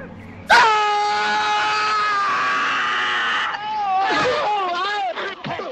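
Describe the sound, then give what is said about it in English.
A man screams loudly, holding one long, strained cry for about three seconds before it breaks into shorter, wavering howls that rise and fall in pitch. “But as soon as one of them lays hands on him, he jams his thumbs in the guy's eyes and starts screaming at the top of his lungs.”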